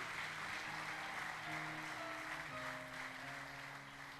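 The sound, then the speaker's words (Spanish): An audience claps continuously in praise to the Holy Spirit, a dense, steady wash of applause, with sustained keyboard-like tones humming underneath throughout. “Vamos a darle palmas de alabanza al Espíritu Santo.”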